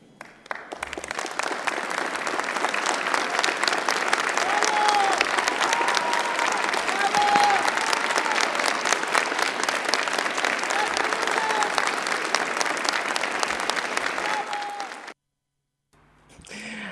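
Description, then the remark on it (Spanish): Sustained applause from a large crowd, applause from President Piñera for his former Interior Minister Gonzalo Blumen, a dense steady roar of many hands clapping for about fifteen seconds before cutting off abruptly, with a few faint whistles or voices rising through it. “Ahí escuchábamos esos aplausos del presidente Piñera hacia su ex ministro del Interior, Gonzalo Blumen,”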